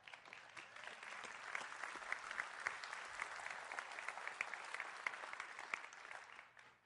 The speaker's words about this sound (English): We can, you know what? We can even give you a round of applause. How about that?